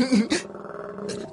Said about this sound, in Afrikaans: uh, oeps. Jammer. Dis my maag wat so gor van die hongerte. Ek was laat met alles vandag en ek het nie by eet uitgekom nie. Jammer maag.